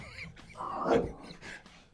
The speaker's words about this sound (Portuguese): Peraí que eu vou um... O cachorro deu a louca aqui.